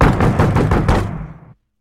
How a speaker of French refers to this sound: Vers une heure du matin, on frappe au volet de leur porte d'entrée.